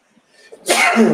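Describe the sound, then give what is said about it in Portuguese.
A single loud sneeze: a faint inhaling build-up followed by a sudden explosive burst of breathy noise that lingers for about half a second. “Saúde.”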